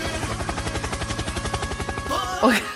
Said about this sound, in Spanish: Helicóptero, helicóptero.